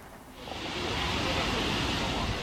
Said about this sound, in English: Violent floodwaters race across China after record setting rain, destroying roads flooding streets and prompting rescues in the aftermath of Typhoon Doksuri.